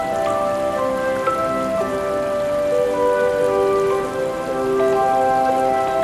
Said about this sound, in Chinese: 听听河水慢慢流泻的声音。将带走我的烦恼。